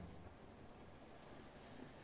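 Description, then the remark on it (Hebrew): A steady, soft hiss of rain falling, continuous and even throughout with no distinct drops standing out, quiet, with no voices present. “כן, גשם. מדהים, אנחנו, כל טיפה וטיפה.”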